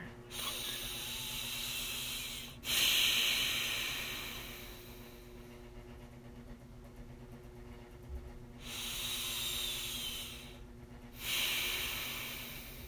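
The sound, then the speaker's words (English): Heavy, forceful breaths drawn and pushed through the nose, loud, coming in a slow uneven rhythm of about four long hissing pulls with quieter pauses between, no talking. “Um, my nose is gasping for air.”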